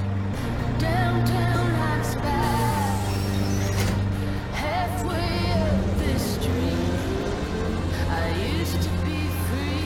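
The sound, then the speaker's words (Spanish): A bus engine rumbles steadily for the whole stretch, a constant low drone with people talking over it. “Solo es un tonto autobús.”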